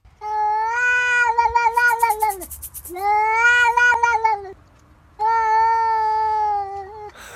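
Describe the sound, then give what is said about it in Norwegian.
A neighbour's cat meows three times at a balcony door in long, drawn-out, wailing cries, loud, with brief pauses between each call and no one speaking. “Bare la oss først høre utgangspunktet, altså selve mjauinga mm. fra nabokatta.”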